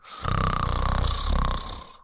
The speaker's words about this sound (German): Und jetzt schnarcht jemand so laut im Bett über mir, dass ich nicht mehr schlafen kann.